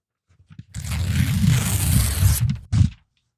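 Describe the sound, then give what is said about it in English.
A paper contract being torn up: one long, rough, crackling rip lasting under two seconds, followed by a brief sharper tear after a short pause. Loud and clear, with no talking. “It's me tearing up the contract.”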